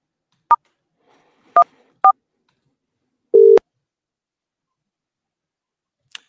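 Three short, clear dialing beeps in an uneven rhythm, followed by a longer, lower connecting tone and a faint click at the end, with no voices.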